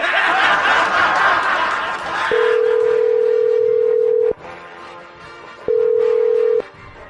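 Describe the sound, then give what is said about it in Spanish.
A telephone line tone sounds as a number is dialed again: a steady mid-pitched hum holds for about two seconds, stops, then returns for a shorter burst, following a stretch of muffled noise at the start. “Márcale otra vez, por favor.”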